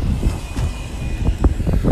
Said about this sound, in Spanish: otro coche